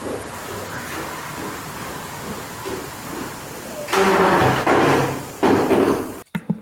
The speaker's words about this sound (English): Now, no offense, that sounds like somebody just moving furniture or something. And it is. That's me scooting the chair.